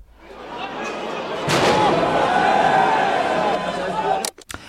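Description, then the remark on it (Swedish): A noisy outdoor crowd of protesting farmers with tractors in Brussels roars steadily, with a sharp bang cutting through early on and a few more sudden cracks near the end as fireworks are shot at the EU Parliament. “och så här lät bönderna då som kör de här traktorerna och som kastade ägg på EU-parlamentet och sköt fyrverkerier på det.”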